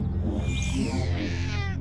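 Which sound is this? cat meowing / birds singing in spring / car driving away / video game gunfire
cat meowing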